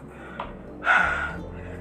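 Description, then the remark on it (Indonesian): A heavy, breathy exhale bursts out, winded panting from cleaning up after a flood, surrounded by softer, quieter breathing and no talking. “sambil benahin bekas banjir sambil ngobrol ngos-ngosan”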